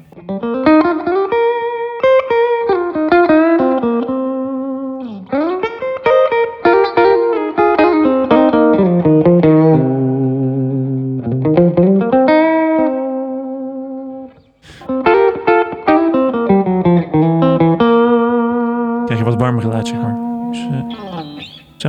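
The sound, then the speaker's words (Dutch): A warm electric guitar with its tone knob turned down, played with little drive and high volume, plays sliding, bending melodic lines with sustained notes, steady and fairly loud, with a soft touch of echo and no one talking. “is, ik draai die toonknop wat dichter.”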